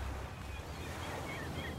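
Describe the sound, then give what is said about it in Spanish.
A soft, steady wash of ocean surf rushes continuously against the shore, a broad hissing roar with no distinct individual breaks and no voices. “Siento la brisa marina que me relaja y escucho el graznido de las gaviotas junto con las olas rompiendo en la orilla del mar.”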